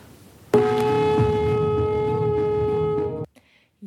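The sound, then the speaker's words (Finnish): A conch shell horn blows one long, steady note for nearly three seconds, a rich buzzing tone that holds even and then cuts off abruptly into near silence. “eli sitten se simpukan, konchin ääni kuuluu vaimeesti, joka kuulostaa tältä.”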